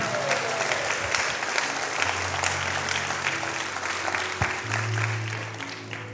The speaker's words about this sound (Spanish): Aquí vamos. Dale ese aplauso al Señor, si usted lo entiende.